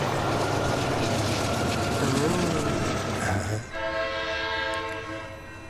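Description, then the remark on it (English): A train rumbles along loudly with broad mechanical noise, then a sustained horn blast sounds near the end, its steady tones ringing over the rolling rumble. A voice briefly murmurs. “Everybody quiet for one Right. second. Let me hear the train.”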